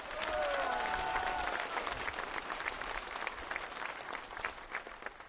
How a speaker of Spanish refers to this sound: Un aplauso a los migrantes.